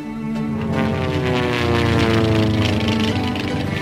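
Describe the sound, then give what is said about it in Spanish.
A steady, loud airplane engine drones throughout, its propeller-driven roar holding a constant low pitch with layered harmonic hum and no speech. It is supposedly the plane in which King Alfonso XIII arrived to inaugurate the Tablada aerodrome in Seville in 1923. “Supuestamente este fue eh, el avión en el que llegó.”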